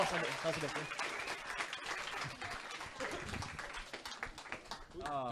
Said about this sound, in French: 32e meilleur au monde au roche-papier-ciseaux. Quand même! On ah, l'applaudit! Félicitations! Félicitations,